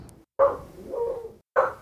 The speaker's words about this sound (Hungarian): Csak már ugat a kutya kint, és motorra ugat.